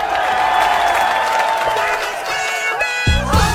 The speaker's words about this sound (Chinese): Ladies and 乡亲们，让我们用热烈的掌声欢迎豆瓣儿闪亮登场。